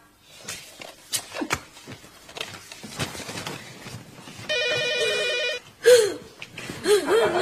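A telephone rings with one steady, warbling electronic trill lasting about a second, after scattered shuffling and footstep-like knocks; the unanswered ring is feared as the deadly ringtone from a horror film. Sharp, high vocal gasps or cries follow right after the ring.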